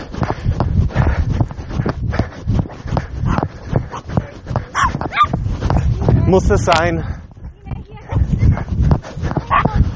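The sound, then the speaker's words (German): A small dog yaps and barks in sharp, repeated bursts at the speaker, with a shrill flurry in the middle, while a person talks over the commotion. “So kleiner der Kleffer, umso schlimmer. So, jetzt habe ich auch live meine, meine Hundeattacke aufgenommen”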